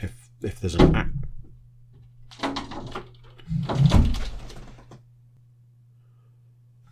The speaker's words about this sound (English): Sorry about that little uh, interlude there. Whilst, um, well, the sound you just heard was a fox trying to uh, break its way into the house through the window, apparently.